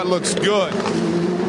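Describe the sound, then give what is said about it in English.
An Indy Lights race car engine drones steadily with a loud, buzzing mid-pitched whine during a race on a long straightaway, while a man talks briefly over it. “That's the sound of it.”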